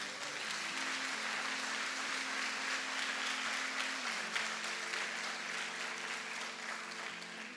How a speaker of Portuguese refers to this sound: Amém, igreja? Pode dar um salve de palmas para Jesus.